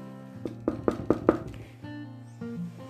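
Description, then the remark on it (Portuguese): Five quick, evenly spaced, distinct knocks on a door, rapping over a soft, steady musical background that continues after the knocking stops. “E isso, o lobo correu, correu, chegou primeiro e bateu na porta.”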